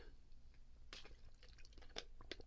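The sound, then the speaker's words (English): Someone drinks water, with a few soft, wet gulps and swallowing sounds at irregular intervals over a faint background hiss, no talking. “I'm drinking my water right there, man, cause I had to.”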